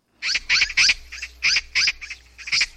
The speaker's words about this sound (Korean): 까치 까치 까치 이거 들리시죠 지금 지금 본인 이름 얘기하는 거 까치 까치 까치 이렇게 얘기하는 오늘 정답은 바로 까치였습니다